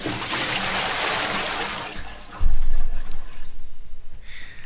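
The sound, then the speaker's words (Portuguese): A loud rush of cold water from a bucket pours and splashes for about two seconds, then a heavy low thud and sloshing follow as the water settles, with no voices. “eu já quero preparar o balde de água fria para ver se a Rúbia, ô oh Rúbia, acorda”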